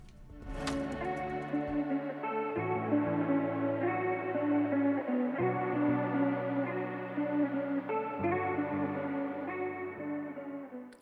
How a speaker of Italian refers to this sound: Che poi l'attitudine punk si sente. Cioè, questo è proprio punk, mi, sì.